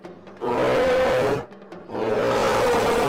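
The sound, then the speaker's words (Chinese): An angry, huge black bear emerging from the grass roars twice, each a long, loud, rough growl lasting about a second, separated by a brief pause. The roars are deep and raspy, with no talking. “草丛中出现一条庞大的身影，一头巨大的黑熊正愤怒地看着乌拉乌拉与兔子妮妮。”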